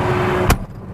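The cab door of a GPS-guided, self-driving tractor slams shut in one heavy, sharp thud over a steady engine rumble. Afterwards the engine sounds duller and more muffled.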